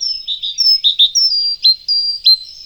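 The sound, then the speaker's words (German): A tit songbird from Spain or Italy sings a lively, varied series of high, thin chirps and short whistled notes, tumbling quickly one after another with no pauses, clear and alone without any talking. “Da wird mehr geplaudert offenbar unter den Meisen.”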